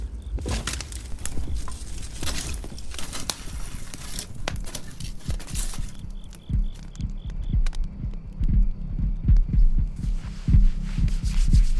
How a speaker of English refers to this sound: I'll throw another log on the fire.